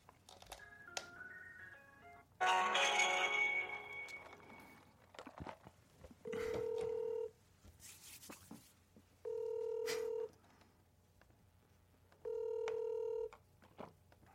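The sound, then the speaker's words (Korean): An outgoing phone call placed live on the radio show Mister Radio to Yang Se-chan rings out: three long, steady ringback tones repeat at even intervals, preceded by brief dialing beeps and a short burst of bright electronic sound. “제가 한번 이분한테 전화를 해봤는데 안 받을까봐 걱정이 되네요.”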